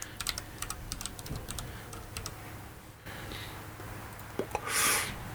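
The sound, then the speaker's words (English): Quick, irregular clicking of keys on a computer keyboard during a Google search, fairly crisp, bursts of typing followed by a few scattered taps and a brief soft whoosh near the end. “Can you look this up real quick? I think a quick Google search needs to happen.”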